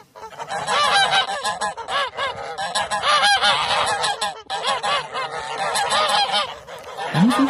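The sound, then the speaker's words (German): A flock of geese cackles and honks continuously, many overlapping calls forming a loud, dense chorus, with no pauses across the whole stretch. “Und es gibt auch ganz, ganz wichtig die Schnattergänse. Und ja, die können ganz schön laut sein.”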